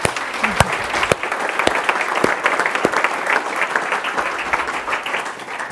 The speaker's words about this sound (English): So with that, I'd like you all to give me uh, some round of applause for Charlotta. Thank you.